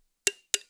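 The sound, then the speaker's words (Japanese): Two sharp plastic clicks about a quarter second apart, a water bottle lid snapping open, each with a brief bright ring that fades quickly; clear with silence around them. Played as a sound quiz. “いやでもこの水筒のパカってやろうといいですよね。”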